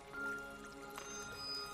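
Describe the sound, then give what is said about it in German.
Water gurgles and bubbles softly in various water-filled vessels standing around a room with several seating corners, a continuous low burble with a steady background hum and a slightly louder liquid surge midway through. No voices. “Also, also ihr betretet einen Raum, der sehr niedrig ausgekleidet ist, verschiedene Sitzecken, verschiedene wässrige Gefäße stehen herum, wo es blubbert”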